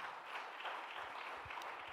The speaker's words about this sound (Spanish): Denle un aplauso fuerte a papá.